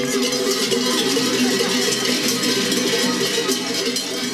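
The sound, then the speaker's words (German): Large cowbells clang continuously in a dense, overlapping jangle, loud and metallic with a bright shimmer, many bells swinging at once with no single steady beat, rung by children in blue blouses and red caps at a traditional March custom of driving out winter in Silvaplana, Oberengadin. “an der März stehen traditionell Kind in ihren blauen Blusen, roten Kappen und der glänzigen Glocke im Mittelpunkt.”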